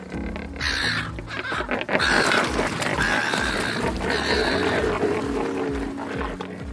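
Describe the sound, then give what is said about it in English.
A flock of pelicans keeps up a loud, continuous racket of harsh grunts, growls and squawks while a fisherman fillets fish, overlapping into a rough chorus with no pauses and no voices. “the pelicans are stoked I'll show you how much noise I make Oh my god”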